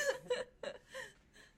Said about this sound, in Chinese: 我们的狗在打呼了。